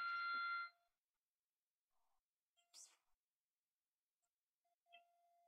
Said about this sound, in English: There's a fire alarm going off. Can you hear that?